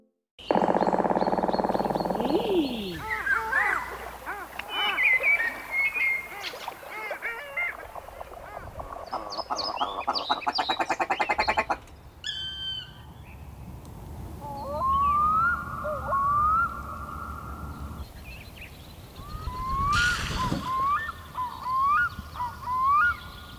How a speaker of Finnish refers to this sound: Kuikka on suomalaisille tärkeä lintu – ja kuikan huuto kesäyössä on upea. Se on kuulunut täällä pitkään, ehkä jo pian jääkauden jälkeen,